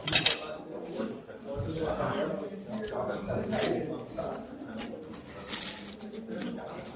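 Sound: loud chewing and smacking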